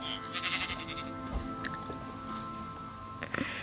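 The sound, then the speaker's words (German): A sheep bleats in a long, wavering call that fills the whole moment, moderately loud, with a few faint clicks near the end and no one talking. “Ne, Schafi?”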